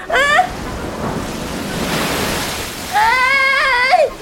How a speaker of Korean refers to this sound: 아, 눈앞이 바다인데! 조금만 더 가자! 어! 어, 파도다!